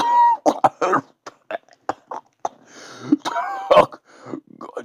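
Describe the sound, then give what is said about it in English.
A voice imitates Batman coughing on his own blood: wet, choking coughs in a ragged series of short, harsh bursts with gurgling rasps and strained moans between them, loud. “Batman's coughing on his own blood.”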